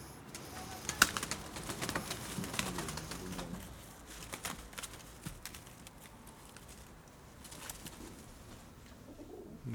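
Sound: pigeons cooing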